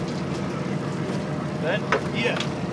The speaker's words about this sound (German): Nach fünf Minuten holt die Seilwinde langsam das Netz ein.